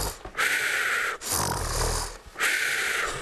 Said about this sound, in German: hörten sie ein gewaltiges Schnarchen.